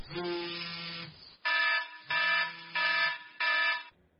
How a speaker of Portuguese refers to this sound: Talvez você seja mais um entre os que negociam minutos a mais com o despertador.